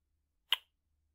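A single quick kiss, a short wet lip smack, standing alone against near silence with no talking around it.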